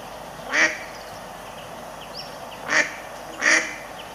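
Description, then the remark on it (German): A mallard duck quacks three times, one short nasal call followed by a longer pause and then two quicker ones, moderately loud against faint background noise with no talking. “die quaken genau wie die Stockenden.”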